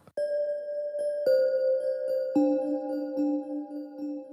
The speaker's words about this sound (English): something that might sound like what you hear in a temple something like a almost a, a gamelan bell or uh, something you definitely definitely associated with spirituality, which was of course the intended effect for this track.